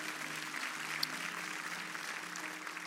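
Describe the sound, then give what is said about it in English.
A church audience giving the Lord a hand clap in a dense, steady wash of applause that lasts the whole stretch without a break, with a low sustained tone humming underneath. No one speaks. “Come on, if you receive that word, can we give the Lord a hand clap? Can we do that right now?”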